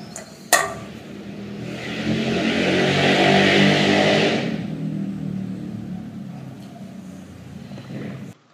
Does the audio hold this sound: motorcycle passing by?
yes